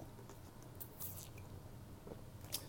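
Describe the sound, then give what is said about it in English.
Quiet sipping from a drink, with soft wet mouth sounds and small clicks and swallows spread over a few seconds. No one speaks. “Sorry, sipping”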